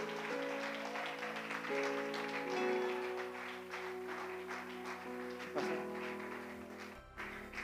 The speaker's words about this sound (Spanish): Démosle palmas al Señor esta noche.